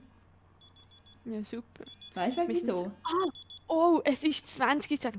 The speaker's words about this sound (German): weißt du, was sogar er tönt neben mir? Das ist mein Wecker.